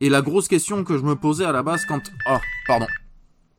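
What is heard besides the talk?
telephone ringing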